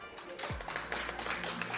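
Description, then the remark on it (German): A small group claps, a quick, dense patter of hand claps running steadily through the moment, with a low thump near the start. “Das ist schon mal äh, vielleicht ein kleiner Applaus wert.”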